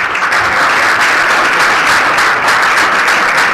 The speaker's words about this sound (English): So we would like to thank him again with a big round of applause.